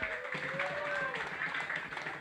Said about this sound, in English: So it's about the culture. So let's clap it up for the culture one time, just for the hell of it.